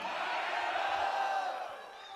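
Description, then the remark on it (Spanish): A large crowd shouts "Gloria a Dios" (glory to God) together in a loud, sustained burst of praise, many voices blending into a roaring cheer that holds steady and then begins to fade after about two seconds. “Tienen fuerza para gritar un fuerte gloria a Dios.”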